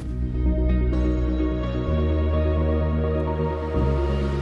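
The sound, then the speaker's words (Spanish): The Radio Salamanca (SER) station theme tune, heard across its programmes such as Hoy por Hoy, plays loud: full, sustained instrumental chords with a steady bass that shifts to new harmonies twice, with no voices over it. “esta sintonía es la que abre cada día el programa, pero perfectamente podría ser esta otra que estamos utilizando”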